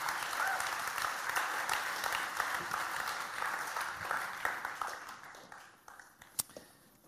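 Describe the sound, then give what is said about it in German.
An audience breaks into sustained applause for God, a dense wash of many hands clapping that holds steady, then thins out toward the end with a few scattered, sharper claps. “Freunde, wer das glaubt, der kann jetzt schon mal Gott Applaus geben, weil Gott einfach gut ist.”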